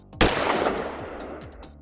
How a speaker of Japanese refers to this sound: 銃声がこだました